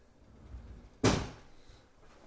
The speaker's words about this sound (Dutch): doe de deur maar dicht. Okay.